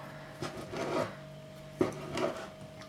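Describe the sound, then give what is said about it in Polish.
A knife cuts soft mozzarella on a wooden cutting board, first into slices, then strips, then pieces, with a few soft scraping strokes and two sharper taps against the board. No one speaks. “Ja kroję ją w ten sposób, że odkrawam najpierw plasterki, później plasterki kroję na pasy i pasy już na właściwej wielkości kawałki.”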